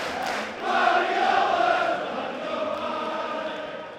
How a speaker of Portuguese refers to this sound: Com esse aqui, faltam três jogos para o Manchester City. E a torcida canta para o Guardiola agora.